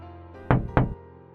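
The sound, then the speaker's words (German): Two hard, heavy knocks land close together on a window pane, each a sharp thud that quickly fades, over a quiet, steady background drone. “während die Gestalt langsam ihren rechten Arm hob und zweimal heftig gegen die Scheibe klopfte.”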